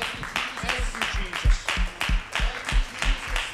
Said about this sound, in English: Let's give him one more hand clap of praise here.